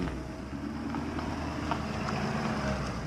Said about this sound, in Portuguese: É, deixa só o carro passar aqui.